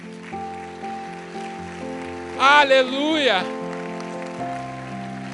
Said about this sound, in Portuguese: Eu queria convidar toda a igreja que ficasse de pé e que você celebrasse ao Senhor. Aplauda ao Senhor nesse lugar.